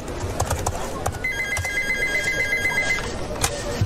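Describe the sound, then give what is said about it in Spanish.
A telephone rings at an office with a warbling electronic trill for about two seconds, set against a busy, noisy background with scattered sharp knocking sounds like hoofbeats. “¿Cuántas veces te he dicho que no me llames acá a la oficina?”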